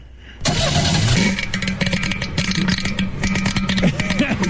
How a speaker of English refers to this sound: Man, I'm going to tell you, listen to it over the phone. I really can't say, but it sounds pretty bad. well, let me give her another shot here just real quick. Any ideas? They sound like you got a bad motor is what it sound like.